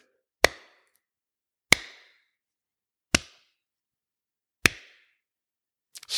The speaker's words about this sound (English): slow clap.